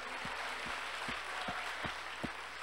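A crowd applauds the people who have been going out with the Ruas street outreach in the cold, at night and before dawn, a dense wash of many hands clapping at an even level, with a few stronger low thumps recurring roughly every half second underneath.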